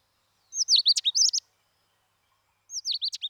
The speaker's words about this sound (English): Apart from watching and photographing birds, I also record bird sounds. Sounds such as this.